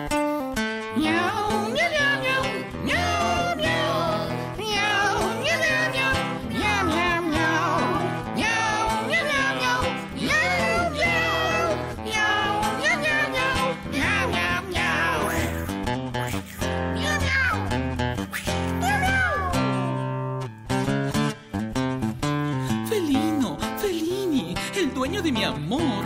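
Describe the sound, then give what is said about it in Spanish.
A singing voice imitates cat meows, with drawn-out mewing cries over a full, busy musical accompaniment that plays loudly and steadily throughout. “El enamorado le canta la bichita así, pero miau.”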